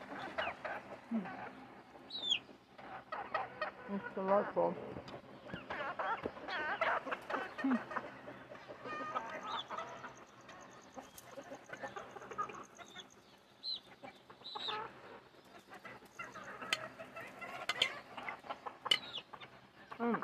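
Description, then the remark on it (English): A flock of chickens being fed clucks and squawks continuously in a busy, overlapping chorus, with occasional sharper calls rising above the steady murmur, moderately loud throughout. “That's whenever I feed my chickens.”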